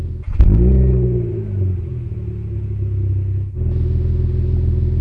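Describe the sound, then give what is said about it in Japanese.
A car engine turns over and revs up loudly with a rising growl, then settles into a steady low rumble as the driver pulls away and keeps driving, following the voice directions of the car navigation system. “音声に従い、僕は車を走らせる。”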